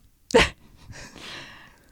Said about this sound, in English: Oh my God, the dog is dreaming. She's dreaming. She's she's dreaming.